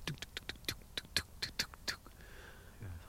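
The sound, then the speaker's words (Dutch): A woodpecker drums on wood, sitting low somewhere: a series of about ten sharp, dry knocks in a quick, slightly uneven rhythm, fairly loud, followed by quiet. “Het ritme van de specht.”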